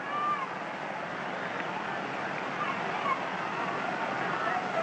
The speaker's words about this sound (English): Now you get that constant buzz from the fans as they realize at any moment this game can be won or lost. We are in the ninth inning of a tie game.